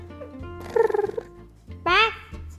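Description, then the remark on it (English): A voice imitates a cat purring: a short, fluttering run of rapid vocal pulses, then a brief higher warbling squeal. Fairly loud, with no other talk. “Berlioz and Toulouse purred happily. Let's hear your purring.”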